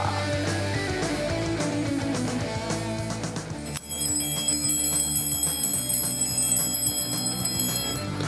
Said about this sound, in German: mit einem vorweihnachtlichen Glockengeläut aus der schönen Westpfalz ins Hessische zum Schreihals